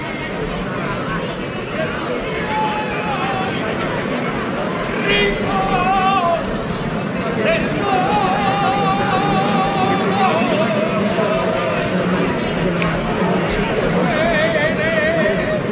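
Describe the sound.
A lone voice sings a slow, wavering flamenco saeta with long ornamented notes in the centre of La Campana during Holy Week (Semana Santa), over the steady murmur of a large outdoor crowd.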